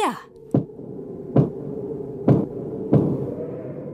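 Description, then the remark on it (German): Four sharp knocking raps, answering a girl's request to count to four, land at a slow, fairly even pace, each a distinct hollow thud over a low, steady background rumble, with no voices. “Wenn du ein verletzter Geist bist, klopfe dreimal.”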